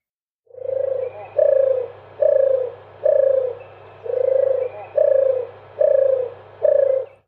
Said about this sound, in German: Und so klingt die Turteltaube.